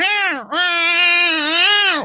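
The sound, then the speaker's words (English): A person imitates cats fighting with a loud, sustained yowling wail that briefly dips and catches near the start, then holds a wavering, nasal pitch for about two seconds. “You, the cat fights. That, that, I did that a little too well.”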